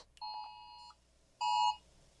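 A phone's second alarm sounds in two steady electronic tonal beeps, each under a second long, separated by a short pause; clear, with no talking over it.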